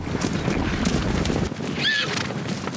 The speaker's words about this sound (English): It's hard to imagine anything surviving on this expanse of badlands in northern Wyoming. Sagebrush blankets the high desert all the way to the Rocky Mountains. But in this empty quarter of the cowboy state is a thundering herd of Mustangs.